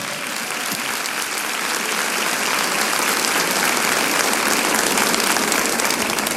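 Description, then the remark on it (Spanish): An audience breaks into sustained applause to God during a sermon, a dense, steady wash of many hands clapping at even loudness for several seconds with no voices standing out. “¿Cuánto le da un aplauso a Dios por esta palabra?”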